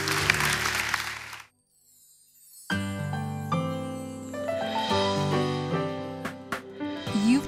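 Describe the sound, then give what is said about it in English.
An audience at Cornerstone Community Church claps in a dense, steady burst for about a second as a clap offering to the Lord, before it cuts off. A short silence follows, then sustained keyboard music with held chords begins. “Come on, let's give the Lord a clap offering, shall we?”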